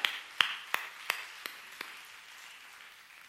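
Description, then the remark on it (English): A group claps in unison, six sharp claps in a quick steady rhythm that grow softer, then a faint wash of scattered clapping trails off. No one speaks. “If you're ready for some good news, clap your hands.”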